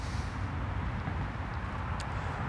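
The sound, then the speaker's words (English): Steady street traffic rumbles past, a continuous low roar of cars with no distinct pauses, even in loudness. No one speaks. “You know, all the cars drilling by.”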